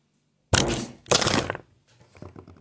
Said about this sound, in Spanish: Quise ser dramático y tiré el celular.